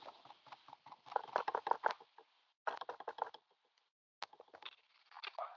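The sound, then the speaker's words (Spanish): Rapid bursts of fingertip taps knock against a microphone lifted off the table, coming in three uneven clusters separated by short silences, each tap a dull, slightly boomy thud. “Levántalo de la mesa, Se lo de la mesa y dale dos o tres toquecitos.”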